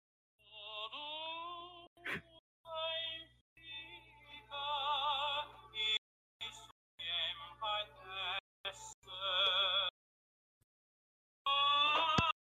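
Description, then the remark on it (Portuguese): The anthem of a Portuguese football club plays in warbling, wavering melodic bursts, broken by brief gaps and a sharp click or two, with no talking over it, before a short silence and a final phrase. “É o hino do maior clube de Portugal.”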